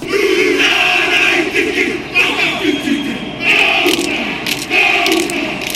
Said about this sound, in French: On a la fameuse traduction du haka des All Blacks quand ils sont sur le terrain, c'est quelqu'un aujourd'hui. Ah, c'est impressionnant, hein